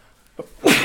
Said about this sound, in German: Gesundheit, Dankeschön. Gesundheit.